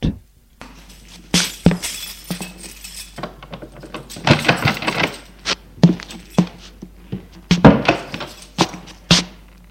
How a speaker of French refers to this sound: Au deuxième étage, il prend ses clés et ouvre la porte.